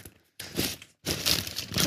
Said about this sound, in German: Ich brauche einen Zettel. Ah, hier. Wir haben hier einen Zettel.